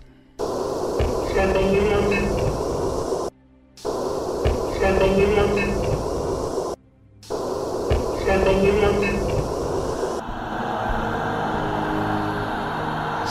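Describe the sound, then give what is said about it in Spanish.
A psychophony recording made at the Palacio de Linares: a faint, garbled voice-like murmur, heard as "Sácame de aquí", buried in dense static hiss and low hum, played three times with brief silent gaps, then static carries on alone. “¿Qué sintió cuando escuchó esta psicofonía”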